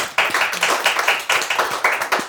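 Steady hand clapping in quick, even rhythm, bright crisp slaps repeating several times per second, with a brief pause midway before the clapping resumes. No voices are heard.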